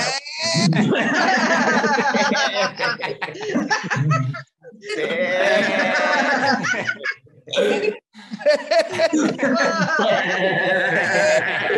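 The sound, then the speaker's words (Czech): A person imitates a sheep in an animal-imitation game, letting out several long, quavering bleats, broken by short pauses and mixed with laughter. “můžeme dát takhle po koze, tak standardně dáme ovci, ne? To je dost podobný, jako vlastně.”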